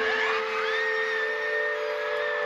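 A concert audience cheers and screams in a steady, sustained roar as the singer on stage speaks, with high-pitched shrieks and whoops rising above the crowd noise throughout, loud and unbroken from start to finish.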